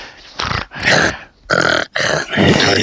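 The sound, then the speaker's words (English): A voice imitates a monster's deep, growly bass breathing with four loud, rasping breaths separated by brief pauses. There is no talking. “And now can you go back to your monster sound? Your bass, yeah, your bass sound of just breathing.”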